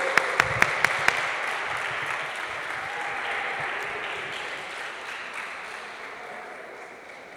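Sustained applause from a church crowd welcoming a couple married 18 years, a dense steady patter of many hands clapping, opening with a few sharp louder claps and then gradually fading over several seconds.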